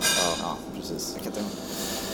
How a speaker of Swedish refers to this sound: Vi ska tilläggas också att vi sitter i en kafeteria så om ni hör lite, lite ljud i bakgrunden är det därför.